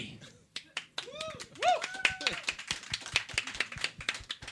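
An audience breaks into steady, rapid applause that builds after a quiet start, with a few rising and falling whoops or whistles mixed into the clapping.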